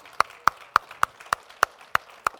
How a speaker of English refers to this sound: Now, would you give the Lord a big clap and thank Him?